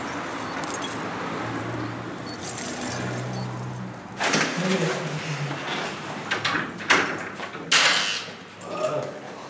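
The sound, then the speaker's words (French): Metallic jangling and scraping of a key being worked, without success, into the lock of a building's entrance door, in several short rattling bursts that follow a few seconds of steady background hum. “là on marche pas ta clé à toi là.”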